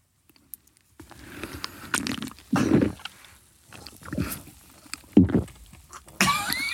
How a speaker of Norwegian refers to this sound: Nå skal jeg ta meg en slurk, og så skal jeg svelge det.